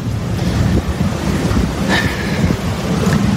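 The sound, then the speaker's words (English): Steady roar of ocean surf mixed with gusting wind buffeting the microphone, loud and continuous throughout, with no voices. “You guys can see the ocean.”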